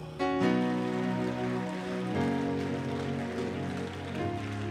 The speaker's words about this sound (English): Clap for the Lord.